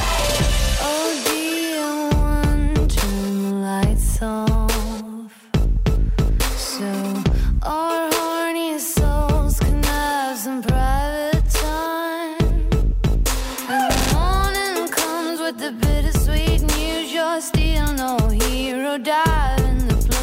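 A pop song plays loud and continuous, a sung vocal melody gliding over a steady, punchy beat and layered synths, with a brief dropout near the start before the music surges back.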